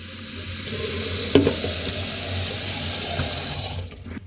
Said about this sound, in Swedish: Hon, hon eh, vill ha ett glas kranvatten stående. Ja, ja, ja. Så, så jag går och fyller på ett glas kranvatten.